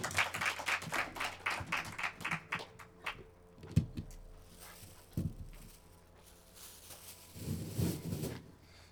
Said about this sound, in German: Komm auf die Bühne und einen tobenden Applaus.